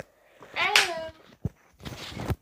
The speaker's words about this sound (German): Klatscht du mich gerade an oder was? Ich klatsch dich gleich an.